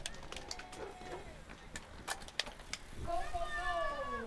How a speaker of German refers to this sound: Quietschen von Bremsen, Schalten. Klassiker.